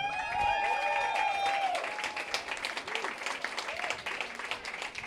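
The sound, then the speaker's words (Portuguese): An audience at a live event applauds and cheers for themselves for being there: loud, dense, steady clapping, while high whoops and cheering voices rise over it at the start, then the clapping carries on for several seconds. “Barulho para vocês mesmos estarem aqui.”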